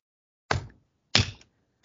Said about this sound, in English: I'm clapping right now, everyone. I'm just yeah. round of freaking applause.